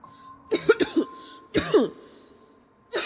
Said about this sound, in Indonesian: Wah, batuk gue.